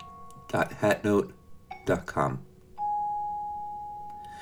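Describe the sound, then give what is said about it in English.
Bright bell chimes and plucked string notes sonifying edits to a website: bells mark additions and plucks mark subtractions, with deeper notes for larger edits. They ring out at varying pitches in a sparse, irregular pattern, ending on one long sustained tone that slowly fades. “The bells indicate additions and string plucks indicate subtractions from the website.”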